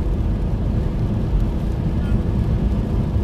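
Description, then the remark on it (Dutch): A steady engine drone from a vehicle driving on the N322 road near Afferden, with a deep low rumble, holding an even level throughout with no clear rises or drops, plus a faint windy hiss on top. “Nee, de motor maakt toeren.”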